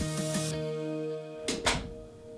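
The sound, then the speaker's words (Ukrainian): A door slams shut, giving two quick, sharp thuds in close succession over a steady low electrical hum, with no one speaking. “Окей, drzwi trzasnęły.”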